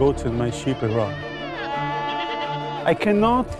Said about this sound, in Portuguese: Pense, não sei nada sobre a Bíblia, não sei nada sobre os pergaminhos e estou aqui com as minhas cabras e ovelhas.